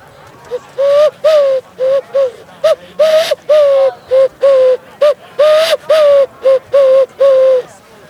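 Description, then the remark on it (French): A person imitates a wood pigeon, repeating loud, hollow cooing notes in rhythmic phrases of short and longer hoots, about fourteen in all, with no talking. “Ce serait possible de nous, faire un dernier son euh, d'oiseau pour nos auditeurs et euh, la palombe par exemple”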